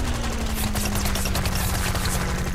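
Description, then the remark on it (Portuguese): Rapid, overlapping gunshots crackle continuously across a battlefield, a dense fusillade of sharp bursts over a low steady drone, with no voices. “À sua esquerda, viu homens correndo, se abaixando em meio a fios de arame para se proteger de tiros que ecoavam do outro lado do campo.”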